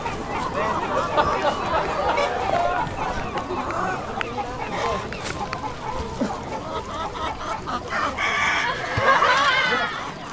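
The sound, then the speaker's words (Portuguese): A busy barnyard chorus of hens clucking steadily while roosters crow over them, one louder crow rising near the end, with indistinct voices mixed into the continuous background. “No confuso rumor que se formava, destacavam-se risos, sons de vozes que altercavam sem se saber onde grasnar de marrecos, cantar de galos, cacarejar de galinhas.”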